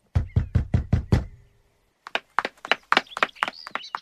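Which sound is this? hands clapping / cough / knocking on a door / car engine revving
knocking on a door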